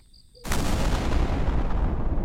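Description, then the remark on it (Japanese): A sudden crack of spring thunder somewhere in a starless night sky bursts in after a near-silent start, then rolls on as a loud, deep, sustained rumble without any voices. “星もない空のどこかで、春雷が鳴った。”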